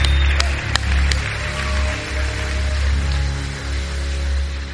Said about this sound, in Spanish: ¿Qué tal si das un fuerte, más fuerte aplauso a Dios y a esta banda hoy, por favor?